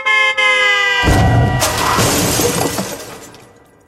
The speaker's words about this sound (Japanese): 彼は、車にひかれて、死んだ即死だ